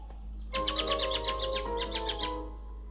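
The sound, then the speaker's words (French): A bird in Martinique sings a rapid series of bright, repeated chirping notes, with a short pause midway before the trill resumes. The song is clear over a low steady background hum. “Christophe traveled the island with his crew and they recorded the birds they saw.”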